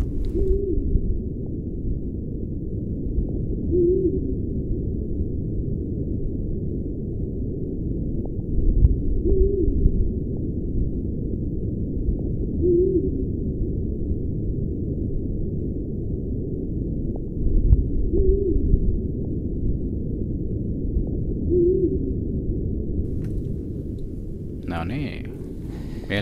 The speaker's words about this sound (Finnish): mielenkiintoinen ääni. Joo. Kaksi vaihtoehtoa, huuhkaja tai viirupöllö.